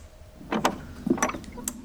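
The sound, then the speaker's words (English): A door handle is turned and the door opens, heard as a few sharp mechanical clicks and clacks of the latch in two short bursts, followed by a faint final click. “And took the handle and turned it and opened it.”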